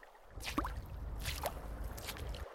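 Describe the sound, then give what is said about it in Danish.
Three slow, splashy footsteps wade through shallow water at a beach, each a wet slosh and squish, over a low steady background rumble, with no talking. “Han går lidt ud i vandet for at se, hvad det er.”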